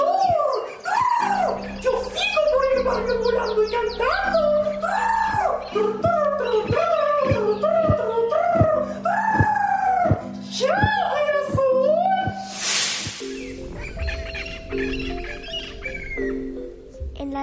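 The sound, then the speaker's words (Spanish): A parrot gives a loud string of harsh, wavering squawks that repeats rapidly, one after another, in a steady rhythm, followed by a burst of rougher screeching calls near the end. “Emprende vuelo, lorito, que ya es tu hora del sol.”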